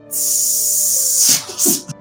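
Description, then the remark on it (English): A person makes a long, loud, steady hiss like a snake for about a second, then trails off into a few short breathy puffs. No words are spoken. “I don't know if we're doing the hissing or not.”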